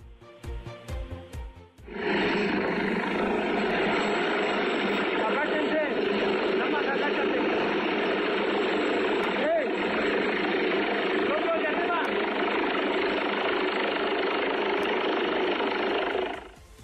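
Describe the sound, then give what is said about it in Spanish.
Two rescue helicopters, from the Relámpagos group and the Secretaría de Seguridad, arrive at an accident site in the State of Mexico to attend the injured, roaring loudly and steadily for about fifteen seconds, a dense whooshing rotor and engine noise, preceded by a couple of seconds of quieter rhythmic thumping. “dos helicópteros, tanto del agrupamiento Relámpagos como de la Secretaría de Seguridad, llegaron al lugar del siniestro para atender a los heridos.”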